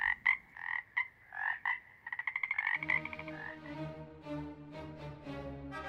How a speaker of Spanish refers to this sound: Debe ser un honor para ellos ser un anfibio y poder cantar un solo nocturno, y para nosotros como humanos poder deleitarnos con su hermoso sonido.